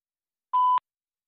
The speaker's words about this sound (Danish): Dette er voicemail tilhørende. …. God. Indtal din besked efter tonen.